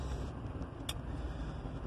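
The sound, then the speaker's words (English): Inside a parked car: a steady, muffled low rumble fills the cabin, quiet and even throughout, broken once by a brief faint click midway. No one speaks. “Uh, I feel like I should change this show to Angry Guy in Car Drinking Coffee because basically I only talk to you guys when I'm sitting in the car at this point.”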